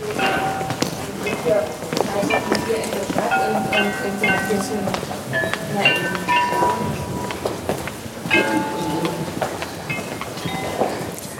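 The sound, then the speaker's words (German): A Meissen porcelain glockenspiel chimes a slow melody of clear, ringing bell tones, heard over a bustling outdoor crowd with murmuring voices and footsteps. “Da ist das, das Glockenspiel aus Meißner Porzellan.”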